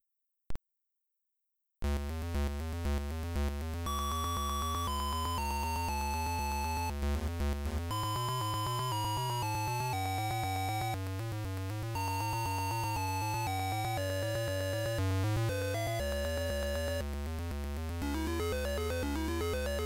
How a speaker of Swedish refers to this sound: En annan lite mer sleeper hit bland sci-fi filmer på 80-talet, som inte gick så bra på bio när den först kom var ju Blade Runner. Och så här lät musiken därifrån på en ZX.